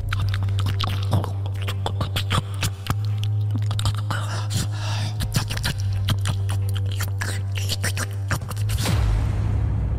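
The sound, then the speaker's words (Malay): Wet, greedy chewing and smacking of a woman with a neat hair bun eating something while squatting in front of a toilet, heard about 40 feet away, with rapid irregular bites and crunches over a steady low electrical hum that stops near the end. “WANITA Bersanggul RAKUS Kunyah MAKANAN Dalam TANDAS”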